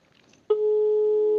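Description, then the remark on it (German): After a short near-silent moment, a loud, steady electronic telephone line tone of a call cuts in abruptly and holds for about a second, clear, with no voices. “Manchmal genügt ein Anruf, um alles zu zerstören.”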